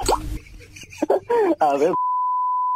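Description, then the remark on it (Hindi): A novelty doorbell ringtone plays: about two seconds of warbling, voice-like tones and a few plops, then a steady, clear electronic beep that holds to the end. “खोलिए खोलिए हमारे पास में फैमिली वाली भी एक डोरबेल है बताऊं मैं एक बार सुनिए”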